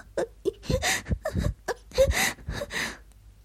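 A woman whimpers and sobs in a run of short, breathy, uneven bursts, her voice wavering and catching between shaky inhales, fairly quiet overall with no words spoken.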